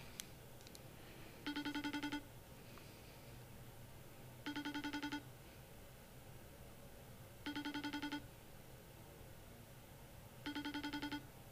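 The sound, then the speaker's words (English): A regular phone call rings four times at steady intervals, each ring a bright, warbling electronic tone burst lasting under a second, with pauses between and a faint background hiss; nobody answers. “pick up, just call him regular and leave a voicemail.”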